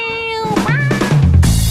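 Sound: cat meowing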